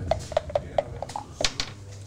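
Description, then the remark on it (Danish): A die is thrown and clatters onto a hard surface, bouncing in a quick series of sharp clicks that speed up and scatter before it settles on a six, with one brighter knock near the end. “vil du ikke starte med at kaste en terning?”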